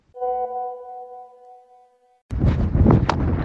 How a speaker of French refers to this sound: je ne sais pas si vous m'entendez avec ce vent de fou.